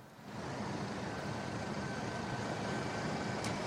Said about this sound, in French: En effet, c'est assez impressionnant hein, parce qu'il y a près euh, de 300 euh, tracteurs. Ils sont euh, sur le point de partir, de reprendre la route direction Paris.